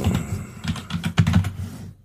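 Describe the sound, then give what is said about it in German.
Brisk typing of a search into the iTunes Store on a computer keyboard: a quick, uneven run of sharp key clicks over a low background hum, with a short pause near the end and no voices. “Alter, ich kann nicht mehr tippen.”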